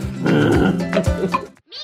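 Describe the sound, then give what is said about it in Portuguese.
A person growls and snarls in a rough, guttural voice for over a second, imitating an angry animal, followed by a brief pause and a short, higher vocal sound. “Eu abracei assim e fiquei rosnando.”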